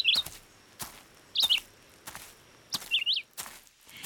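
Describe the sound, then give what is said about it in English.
Songbirds in the treetops sing in three short, bright chirping phrases spaced a second or so apart, clear, with scattered soft crunching taps in between and no voices, heard on a hike. “You can hear songbirds and take the opportunity to spot them in the treetops.”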